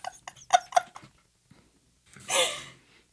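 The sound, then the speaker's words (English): A few soft snuffly clicks, then a single breathy, rough grumble from a dog, a short huffing rumble lasting under a second with quiet around it. “He's been so grumbly lately.”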